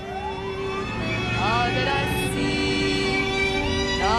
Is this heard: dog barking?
no